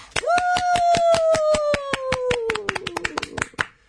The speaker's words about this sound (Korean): 참여해 주신 분들에게는 2018년형 최신형 아주 신선한 갓 생산된 고급, 최고급 감사의 박수를 드립니다.